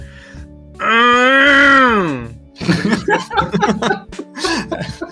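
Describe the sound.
A person imitates the cry of the Pokémon Geodude with a loud, drawn-out straining groan for about a second and a half, pitch rising then sagging, followed by laughter and lively talk.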